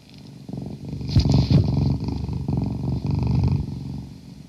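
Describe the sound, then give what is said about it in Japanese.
A cat purrs steadily, a continuous low rumbling vibration that pulses softly with each breath, loud and clear with no talking over it. “ゴロゴロ言ってます。”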